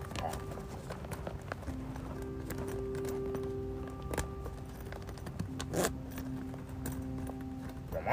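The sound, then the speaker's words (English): A zipper being pulled closed in a few short, raspy strokes, over a steady humming background with faint tonal drones. “Zip this up.”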